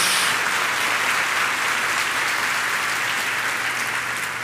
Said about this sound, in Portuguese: quem está recebendo, dá uma salva de palmas ao Senhor, um glória a Deus.